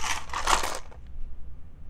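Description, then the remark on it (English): A small hard die is rolled and clatters and tumbles across a tabletop for under a second, a quick rattling burst that settles into quiet room noise. “Oh, I got to roll a die because I lost, right?”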